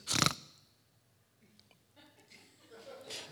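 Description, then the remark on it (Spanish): A voice imitates a husband's snore: one loud, harsh snort bursts out, followed by a pause of near silence and then soft, drawn-out breathy rasping that slowly grows. “Pero el más peligroso es el ronquido misterioso, el que el marido hace”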